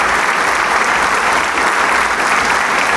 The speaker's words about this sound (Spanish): Escuche usted el mar de aplausos.